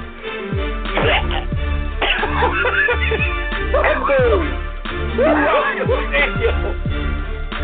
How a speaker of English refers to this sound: there is a pause throughout the stadium as this man sounds like he just coughed up a lung.